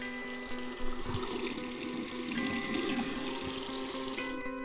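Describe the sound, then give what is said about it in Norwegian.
A bathroom tap in a second bathroom runs steadily into a sink as the water is tested, a continuous hissing stream with a faint tonal hum, fairly loud, stopping near the end. No one speaks. “Ja, da står jeg nede på det andre badet og skal teste vannet her.”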